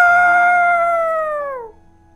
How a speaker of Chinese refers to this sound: 黎明的到来，公鸡就像往常一样啼叫起来，它站在高高的树枝上，伸长了脖子，咯咯咯。